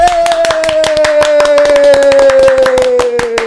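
Audience clapping to welcome a guest, brisk and loud, with many quick sharp claps running steadily for a few seconds. A sustained mid-pitched tone sounds underneath, sliding slowly lower. No one speaks.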